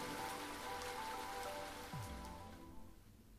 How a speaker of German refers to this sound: Der stärker werdende Regen störte mich nicht.